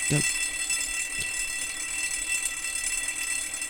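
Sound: fire alarm ringing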